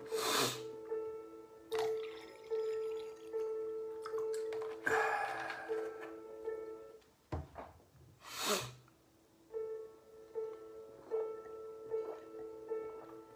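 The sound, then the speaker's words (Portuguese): Water pours into a drinking glass in several short bursts, splashing and gurgling with a ringing tone, with brief pauses between pours and no talking. “Deixa eu peço a licença para encher o copo com água meu aqui.”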